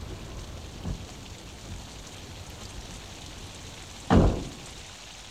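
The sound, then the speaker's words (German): Steady rain falls throughout with a soft, even hiss, broken by a faint thud early on and one sudden loud, sharp gunshot near the end. No one speaks. “Es regnet.”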